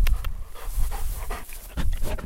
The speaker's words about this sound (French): Ouais, voilà, c'était le chien. Donc, euh, bon, c'est bon, il est reparti, il me laisse tranquille deux minutes.